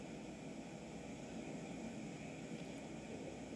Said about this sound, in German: Yo, jetzt kommt da einfach so ein riesen Düsenjet.